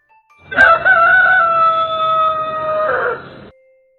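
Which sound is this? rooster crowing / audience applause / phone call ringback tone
rooster crowing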